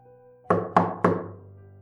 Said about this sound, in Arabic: تلات دقات على باب أوضة الفندق